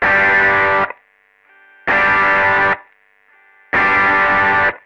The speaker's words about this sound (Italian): Adesso andiamo a fare un po' di prove con l'overdrive. Questo è il suono pulito senza overdrive. E questo è con l'overdrive.